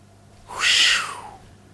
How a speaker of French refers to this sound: Là, c'est la fréquence qui varie. Là, c'est le, le bruit qui monte et qui descend. Mais on a une sensation de hauteur, on y reviendra.